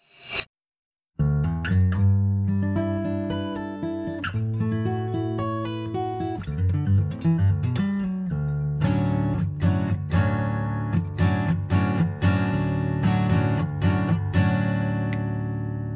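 Layered instrumental music with sustained tonal chords and repeating melodic patterns, building into denser rhythmic textures with steady plucked or struck accents; loud and continuous, no voices.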